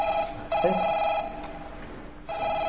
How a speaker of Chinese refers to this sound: 哎， 大哥， 不要急，来电话。